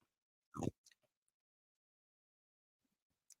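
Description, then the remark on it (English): A person chewing on ice: one loud crunch as a chunk of ice is bitten, followed by a few faint crackles and clicks. Mostly quiet, with another small crunch at the very end. “Chewing on ice.”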